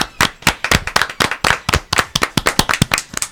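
Applause from a small group: many sharp, bright hand claps in a quick, slightly uneven rhythm, loud and steady for a few seconds with no voices over it.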